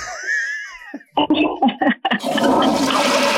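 A toilet flush sound effect rushes in loudly and steadily after a few brief vocal bursts, preceded by squeaky, whining tones at the start.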